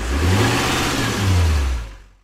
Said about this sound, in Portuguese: no programa de hoje, como você pode ouvir pelo castanhar do clássico motor a é diesel, significa que a gente está falando mais uma vez do quadro mais amado da história